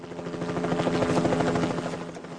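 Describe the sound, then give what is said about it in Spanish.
A helicopter's steady rotor chop and engine whine hold at a loud, even level, the rapid beating pulses swelling slightly mid-clip as it comes down to land at a landing point marked with lights outside a stadium during a match, with no voices present. “Un policía hace señales al helicóptero desde el punto de aterrizaje marcado con luces fuera del estadio.”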